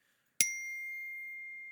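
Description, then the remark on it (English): A single bright phone text-message ding strikes sharply, then rings on with a clear, steady tone that fades only slightly, heard on its own with no voices. “What was that bell?”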